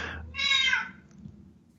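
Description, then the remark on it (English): A cat lets out a single drawn-out meow, fairly loud, with a brief softer mew just before it and low room hum underneath. “My cat is into this uh, discussion right now.”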